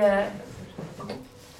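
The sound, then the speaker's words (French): A studio chair gives a short, tonal, fairly loud creak right at the start, then people talk quietly for the rest of the moment. “Alors, on a des petits soucis avec les chaises au studio.”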